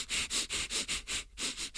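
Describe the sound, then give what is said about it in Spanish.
A quick run of about eight sharp sniffs through the nose, steady and rhythmic with one brief pause near the end, each a hissy airy burst. No talking. “Intentemos de alguna manera respirar todo por la nariz.”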